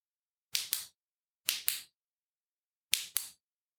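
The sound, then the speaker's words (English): A torch switch clicks three times, each press a quick double click with brief pauses between, crisp and sharp against near silence with no voices. “Next, what I'm going to do is just use this torch here.”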